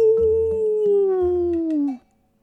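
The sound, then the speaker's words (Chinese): A voice imitating a lion's roar: one long, loud howling cry lasting about two seconds, sliding steadily downward in pitch before cutting off abruptly, with soft low thumps underneath. “兔子小声地说：“ 我们走吧，迈开大步向前走，再来点狮子的嚎叫声。”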